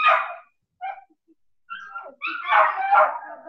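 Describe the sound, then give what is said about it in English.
Dogs bark and whimper in short, excited bursts, with high yips and whines separated by brief pauses, growing busier and louder toward the end. “the, the dogs are in love, so uh, we have to uh, excuse the noise, but they're yeah.”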